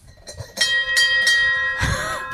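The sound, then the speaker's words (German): A bell hanging on the door of a traditional Bavarian wooden hut jingles several times in quick shakes, its bright ringing tones overlapping and sustaining, fairly loud, with no one speaking. “Nein, das war die Glocke, die an unserer Tür hängt. Magst du sie nochmal läuten?”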